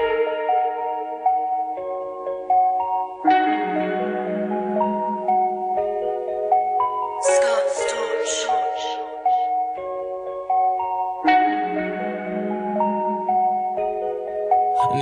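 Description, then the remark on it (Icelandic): A song plays, an instrumental stretch with a repeating melodic pattern of sustained, bright notes over a low bass, broken midway by a brief burst of noisy percussion; no one sings or talks. “Já, við skulum við fá eitt lag, þetta er uh,”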